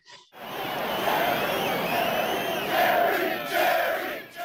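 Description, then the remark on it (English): A large crowd in the stands roars and cheers continuously for one person, a dense wall of shouting voices that swells louder in the middle and near the end, with no single voice standing out. “they cheer for him, and it's the first time in the whole film that we see Jerry smile”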